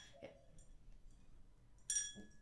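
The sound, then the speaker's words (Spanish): Bailey, a pet, drinks from the speaker's glass of water on the counter: a soft knock, then a sharp glassy clink that rings briefly. “oye, Bailey se está tomando mi vaso de agua que está en el counter.”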